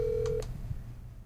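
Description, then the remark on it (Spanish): A phone call's ringing tone on a call to a cousin: one steady, mid-pitched electronic beep lasting under half a second, then cutting off into a quiet low hum with no voices. “Cuando da tres timbres y no contesta, me preocupa.”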